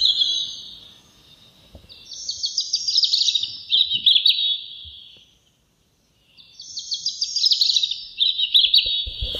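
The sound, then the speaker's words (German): A recording of high, fluting birdsong in two long phrases separated by a brief pause, each a rapid run of bright, warbling notes. The song is clear, with no talking. “nicht zu ertragen hier, wenn wir jetzt die Vögel selber singen müssen”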